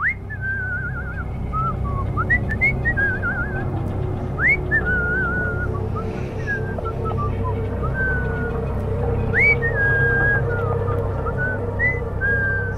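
Someone whistles a wandering tune in short, sliding phrases, clear, over a steady low rumble like an engine or passing traffic. No one speaks.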